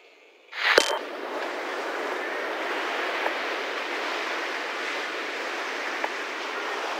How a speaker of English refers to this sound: Through his frequency, I heard what I knew was a beach the waves coming and going the breeze deafening a microphone, classic reggaeton in the distance.